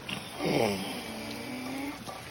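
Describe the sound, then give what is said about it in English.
A female seal, asleep on her back beside a house, snores loudly in one long, droning breath with a low, buzzy rumble, over a steady background hiss of pouring rain. “And then later that day, she plopped down on the other side of the house and it was pouring down rain and she was just snoozing very loudly.”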